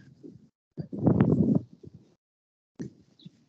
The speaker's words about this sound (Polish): Jezu, to or, orkan Sawery jakiś chyba się zerwał. tak, się... to, to, to spauzujmy na dwie minutki i ja dobiegnę gdzieś, gdzie nie ma tego wiatru.